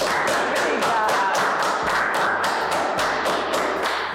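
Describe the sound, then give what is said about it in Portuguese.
A steady round of applause from a group, dense overlapping claps holding at an even, fairly loud level for about four seconds with no talking over it. “Não, ah, uma salva de palmas, né?”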